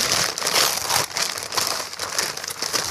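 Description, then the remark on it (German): Continuous crumpling and crinkling of newspaper packing as a thickly, double-packed parcel is unwrapped, loud and busy with irregular bursts of rustling as paper is pulled apart, no voices. “Doppelt verpackt, ne?”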